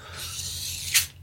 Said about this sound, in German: Man hört übrigens die Kreissäge im Hintergrund.